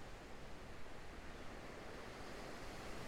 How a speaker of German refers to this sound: Hörst dieses Plätschern der Wellen und fühlst die wärmende Sonne auf deiner Haut. Genieße diese wohltuende Umgebung des Meeres. Kleinen Wellen kommen und gehen, wie dein eigener Atem.